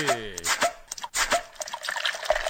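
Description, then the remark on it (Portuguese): Ice-cold Heineken draft beer pours into a glass, a gurgling stream with rising glugging tones at the start, then a steady fizzy splash and foamy hiss for a couple of seconds. “Que tal agora a cerveja estupidamente gelada esperando você?”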